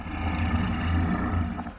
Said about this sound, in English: The monstrous dog bellowed some grunts of pleasure.